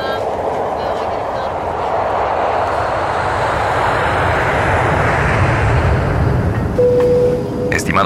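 A steady, loud roar of an airplane flying overhead, a broad rumbling drone that holds for the whole stretch, with a brief thin tone near the end.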